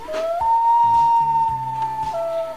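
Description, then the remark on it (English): A loon on a dune wails: one long, pure, whistle-like note that steps up in pitch, holds steadily, then drops back down at the end, with a low murmuring background underneath and no talking. “We leave you now with the sound of a loon on a dune, crooning a tune at the moon.”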